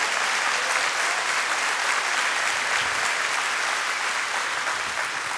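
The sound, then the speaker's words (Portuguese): A large crowd claps steadily and loudly for several seconds as an applause offered to the Lord, a dense, continuous wash of applause with no pauses or voices standing out. “Dê uma salva de palmas ao Senhor.”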